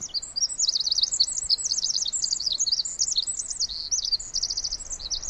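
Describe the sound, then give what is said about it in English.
A tiny wren, about the size of a small child's balled fist, perched on a branch about three feet away in a forest, sings loudly, pouring out a rapid, high-pitched stream of trills and warbles that runs without pause for several seconds. No voices. “Just then, a tiny wren flies down and lands on a branch about three feet away from us and just lets it all out.”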